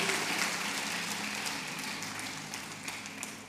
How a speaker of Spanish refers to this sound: Si lo crees, dale un aplauso fuerte al Señor.